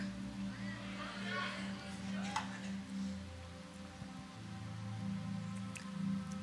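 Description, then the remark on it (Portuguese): Quiet liquid sounds of water being poured and sipped, with soft wet drips and a brief clink, over a low steady background hum. “Você deixa eu tomar uma água, irmão.”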